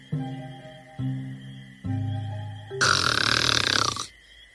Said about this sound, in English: May you always snore like this, my love, even though I hate it.